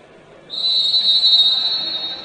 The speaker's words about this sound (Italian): E Fischio che arriva, dunque buon divertimento, Magic Gradi, Manfredonia.